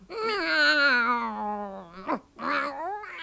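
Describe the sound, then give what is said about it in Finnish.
A cat lets out a long, drawn-out yowling meow that slowly falls in pitch, followed by a brief sharp squeak and then a second rising wail, loud. “Sä oot sentään Suomen ainoa taikakissa, osaat lukkea ja kirjoittaa, niin kuin mä olen sua sivistänyt ja kallista aikaani niin sulle uhrannut.”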